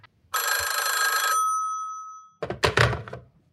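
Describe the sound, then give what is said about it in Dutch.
A single loud telephone ring on an outgoing call to Leo Blokhuis lasts about a second and fades out, followed by a brief burst of clattering, rustling noise as the line picks up. “Dus eh, ik heb hem gebeld en ik heb even een gesprekje met hem gehad.”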